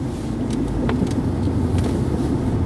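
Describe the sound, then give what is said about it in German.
Steady low rumble inside a moving car as it brakes, with a few light, irregular knocks and rattles from a loose object sliding around, quieter than the road noise. “Irgendwas rutscht hier, wenn ich bremse im Auto und klappert.”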